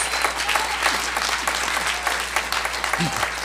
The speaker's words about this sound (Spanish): El Señor dijo, a ver, pónganse todos de pie, démosle un aplauso a Saqueo.